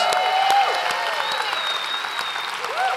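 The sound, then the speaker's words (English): A church audience applauding steadily to celebrate each other, a dense wash of many hands clapping at once, with a few scattered cheers rising above it and no one speaking. “Come on, let's just celebrate each other together for a moment.”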